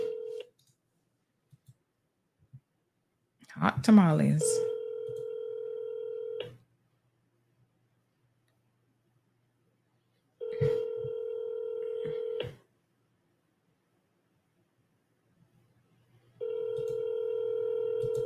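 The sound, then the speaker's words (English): A telephone line tone with harmonic bands sounds in three separate bursts of about two to three seconds each during an unanswered call to a scammer, the first briefly preceded by a quick voice, then long silent gaps between. “Scammers don't want to answer the phone.”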